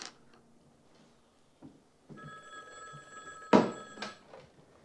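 An old-fashioned black telephone on a little table with a lamp, by a red chair against the wall, rings, its metallic bell tone sustained and ringing out, with a couple of louder clangs toward the end. Otherwise quiet, with no voices.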